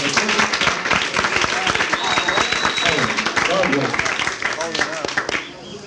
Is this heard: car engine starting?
no